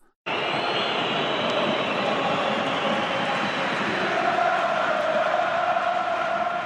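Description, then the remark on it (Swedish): A huge stadium crowd in France chants in unison for Emiliano Sala in the ninth minute, a loud, dense, sustained roar of thousands of voices that swells in abruptly and holds steady for several seconds. “Écoutez le chant pour Emiliano Sala, 9 minute.”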